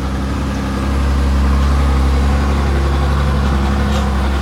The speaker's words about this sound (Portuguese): Então, deixa o caminhão passar mais um.